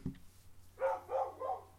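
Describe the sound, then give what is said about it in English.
A dog named Mickey barks three times in quick, evenly spaced succession, moderately loud, with a faint low hum in the background and no one speaking. “I don't talk dog.”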